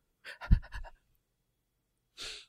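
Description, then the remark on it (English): A voice imitates heavy panting: a quick run of short, breathy huffs, then a pause and one final breathy exhale, fairly loud with no talking. “Let's do some panting acting.”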